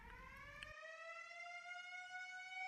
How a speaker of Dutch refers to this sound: Al die houten barakken we kropen tegen elkaar aan en die sirene ging maar en allemaal brandweer, want ze hielden natuurlijk die andere houten barakken nat alvast.